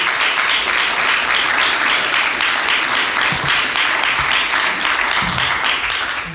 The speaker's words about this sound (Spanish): Dele un aplauso al rey.